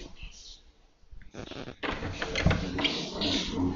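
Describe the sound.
A door is opened with a short clatter and rattle, followed by a steady wash of room noise with faint, muffled voices in the background.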